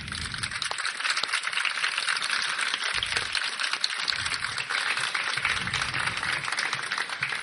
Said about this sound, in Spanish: Seguimos en regreso a Hobbiton y como anunciamos hace un rato, está con nosotros el gran Pepe Mediavilla. Un aplauso, por favor, para él.